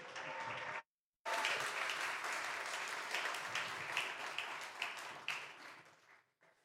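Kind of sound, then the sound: crowd, applause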